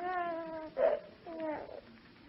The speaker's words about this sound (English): Oh, he's crying.